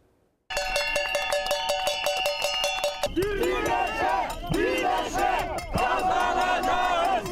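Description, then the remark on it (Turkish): A loud crowd of protesting pensioners in Kadıköy chants and shouts in unison, opening over steady shrill tones before many voices rise and fall in rhythmic, overlapping chants that continue to the end. “Yeni yılda zamlı maaşları belirlenmeden bir kez daha seslerini duyurmaya çalıştılar.”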